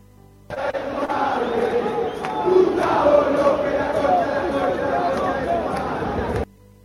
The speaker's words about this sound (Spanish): Una, escuchen el maltrato que recibió Gustavo López el otro día en, en la cancha.